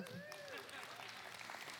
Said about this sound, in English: Thank you. Give him a hand clap.